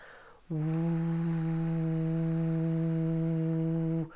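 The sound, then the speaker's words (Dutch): A steady, buzzing voiced 'vvv' hum held for about three and a half seconds, a person imitating a steamboat's horn as a voice relaxation exercise, with one continuous low drone that starts and stops abruptly. “En hetzelfde kan ik doen op de, de V, een beetje alsof ik een stoom, eh, stoomboot ben.”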